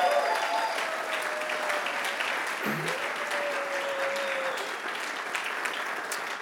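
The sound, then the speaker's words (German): Sustained applause from a sizable church audience, a dense steady wash of clapping for several seconds, with a faint tonal sound drifting through the middle. “Und hey, wollen wir den Leuten nochmal einen Applaus geben, die einfach schon lange hier am Start sind und Gemeinde bauen.”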